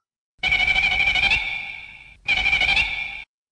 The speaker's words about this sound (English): We put the little beep beep beep beep in there. I started put I started putting sound effects in our episodes. Hopefully, it's not irritating people.